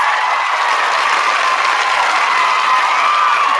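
A crowd claps and cheers steadily and loudly, a dense wash of applause filling the space without pause for a few seconds.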